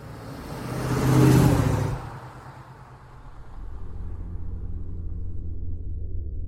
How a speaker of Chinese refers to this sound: 奔驰六百型汽车。在黑暗中向东面的张家村方向奔驰。